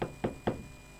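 Three quick knuckle raps on a wooden surface, evenly spaced, each a sharp hollow thud that fades fast, with nothing else but faint background hum.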